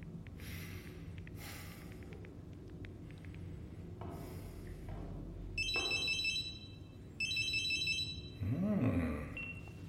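A telephone rings twice in bursts of rapid electronic trilling, clear, after some rustling and handling noise, followed by a brief low murmur as the line seems to pick up.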